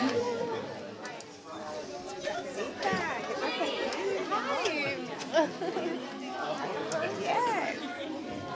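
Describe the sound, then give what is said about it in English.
A roomful of people at an evening chapel gathering chatting and greeting one another as they take their seats, many overlapping voices forming a lively, steady hubbub with occasional brighter exclamations rising above the murmur. “Greet someone next to you on your way down, though. Say hello.”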